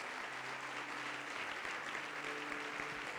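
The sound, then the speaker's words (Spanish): An audience applauds steadily for about three seconds, a dense, even wash of many hands clapping at a constant level, with faint tonal hum underneath and no one speaking. “Dele un aplauso, por favor, a todas estas personas.”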